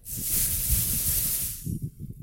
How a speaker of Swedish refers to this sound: Gud, den här julgirlangen börjar sticka så mycket. Du ni... kan nog ta den. Ja, men jag ska bara göra lite ljud så att ni får njuta.